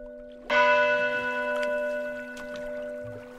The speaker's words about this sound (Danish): ja, så er der altså også hængt en, øh, en kirkeklokke her. Og jeg har det sådan, når det er, jeg står, og jeg har stået der før, hvis man sådan er helt stille og lytter efter, så den her kirkeklokke, altså den ringer næsten med tusind års historie.